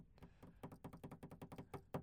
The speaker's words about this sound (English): Can you do a drum roll? Just so the mic doesn't pick up like a really loud banging or anything.